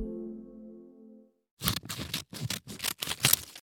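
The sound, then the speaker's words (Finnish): A low tonal hum fades out, then a quick series of about five crisp scissor snips follows, each a sharp papery crunch in an irregular rhythm. “Se oli budjettiriihi sakset, jotka viuhu villinä viime viikkoina.”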